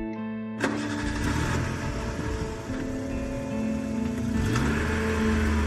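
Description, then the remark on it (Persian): An SUV's engine cranks and catches about half a second in, then settles into a steady, low rumbling idle with a slight rise in revs near the end. No voices. “چند دقیقه بعد تاروخ با یه ماشین شاسی بلند اومد دنبالم و سوار ماشینم کرد”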